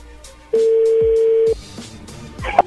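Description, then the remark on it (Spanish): A phone number being redialed to place a radio program call: a loud, steady low telephone tone holds for about a second, followed by a short, higher electronic beep over faint background noise. “A ver, márcala de nuevo, de una vez.”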